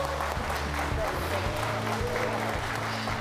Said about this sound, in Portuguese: Foi aplaudido em pé.